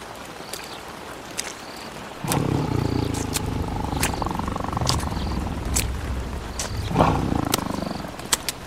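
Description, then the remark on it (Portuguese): A white-furred saber-toothed tiger walks calmly across the savanna sniffing the ground: a low, rumbling growl starts after a quiet moment and continues steadily, with a brief louder swell near the end and sharp little clicks scattered throughout. “Minutos mais tarde, um tigre dentes de sabre surgiu caminhando tranquilamente pela savana, farejando o chão até encostar o seu focinho na mão do cavaleiro, que jazia em um sono profundo.”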